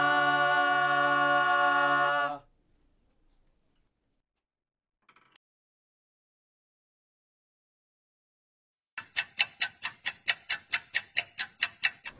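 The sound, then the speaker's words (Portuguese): A clock ticks as a time signal announcing the exact time, in a quick, steady rhythm, more than a dozen crisp ticks over about three seconds, after a sustained musical tone ends and a long stretch of near silence. “A luta pela educação pública gratuita e de qualidade informa a hora certa.”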